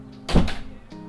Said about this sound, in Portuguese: Bateu a porta aqui.